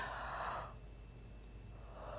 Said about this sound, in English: And I take a big yawn. This is that yawn is symbolic, just so you know, of how much how much he wore me out in a good way.